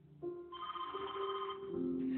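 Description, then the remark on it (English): A telephone rings steadily, a sustained electronic trill with bright stacked tones that shift in pitch partway through, clear with no voices, on the morning of September 11th while someone is making the bed. “Woke up, put a pot of coffee in, so I was making the bed, and the telephone rang.”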